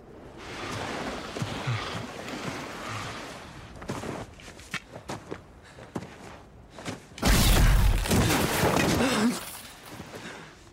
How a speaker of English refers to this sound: Those are the sounds of skeletons bursting up from out of the ground, attacking our heroes and our hearts with sheer terror and bone parts.